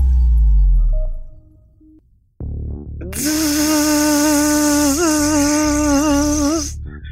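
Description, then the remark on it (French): A convertible car roof retracting: a low rumble, then a mechanical clunk and a loud, steady electric motor whine that wavers slightly in pitch for several seconds before cutting off. No one speaks. “C'est le bruit du toit qui se rétracte,”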